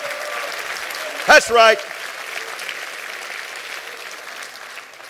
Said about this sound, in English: Clap your hands and say, That's right.